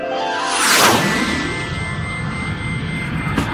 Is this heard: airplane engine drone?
yes